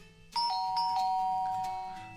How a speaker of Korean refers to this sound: 그리고 도착한 첫 집. 그것은 어... 바로 옆집이었습니다. 어, 자 여기 문 앞에 나란히 서봐. 엄마 초인종 누른다. 문 열리면 노래하는 거야. 자, 누른다. 누른다.